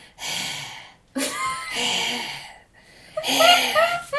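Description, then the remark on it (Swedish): A voice imitates the heavy panting of someone standing outside a door, with four loud, raspy breaths in and out in a steady, uneven rhythm, with no other sounds around them. “typ flåsar.”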